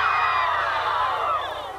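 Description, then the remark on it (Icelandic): A crowd cries out in dismay together in a dense, sustained wail of many overlapping voices, loud and unbroken for the whole moment before easing slightly at the end, as Kennedy tells them that Martin Luther King has been shot and killed. “Örvending greip um sig meðal mannfjöldans en Kennedy tókst af yfirvegun að róa fólkið”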